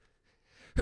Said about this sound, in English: Damn it, I'm going to sneeze again. Are you? Here it comes.